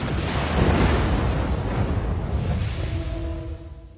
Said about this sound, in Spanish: se preparó para disparar su cañón de 77 milímetros en cuanto los tanques se pusieron a tiro. Los tanques aparecieron de repente frente a nosotros. Ordené que el alza se pusiera a 700 metros y al tercer disparo destruimos uno de ellos.